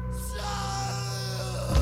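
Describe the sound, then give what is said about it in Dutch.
A man lets out a loud, sustained yell in a strained shouting voice, held steadily for about two seconds and rising slightly at the end, with no other sounds around it. “Dat is mijn schreeuwstem.”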